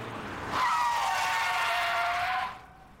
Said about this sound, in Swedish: En bil bromsar in hårt framför honom.